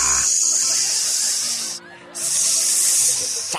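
A loud, sharp snake hiss rings out in two long bursts split by a brief pause, with a faint low hum lingering underneath.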